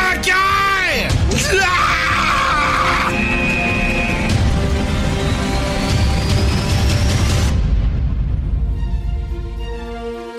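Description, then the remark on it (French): A man screams loudly and at length, his voice straining and bending in pitch, with raw yelling sustained for several seconds before it cuts off abruptly near the end. “Tu peux-tu me crier impatience avec tes hosties, Frère!”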